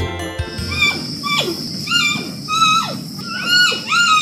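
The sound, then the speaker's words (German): A series of high, squeaky bleating calls from a giant panda, each a harmonic tone sliding downward, repeating about every second with no speech. “Es ist nämlich ein Panda-Bär.”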